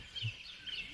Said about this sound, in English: He stepped outside for good reception, and now we're hearing the birds chirping, as if he was at Augusta National.